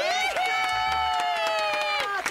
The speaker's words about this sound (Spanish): No, en cabina no me aplauden. Ah, no, sí, sí, sí, sí, hay aplausos, sí hay ah, aplausos,